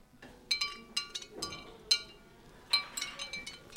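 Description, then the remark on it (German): Light ceramic clinks and jingles tinkle in small irregular bursts as an autumn garland of clay leaves is jostled while being carried through a building to a department that is decorating, moderately soft, with no one speaking. “Was bimmelt da?”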